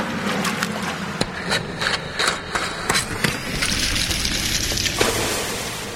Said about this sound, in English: Oh my, Nefarioso is pouring petrol on us we are trapped in this pit.